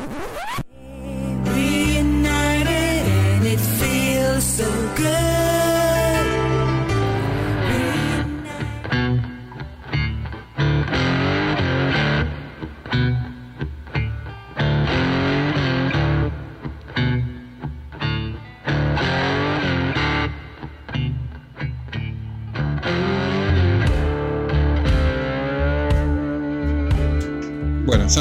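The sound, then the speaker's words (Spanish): Loud, dense music plays without pause for the whole stretch, with a steady rhythmic pulse and bright, full-bodied instrumentation filling the foreground. “esa, musiquita, esa musiquita que está sonando de fondo, amigos,”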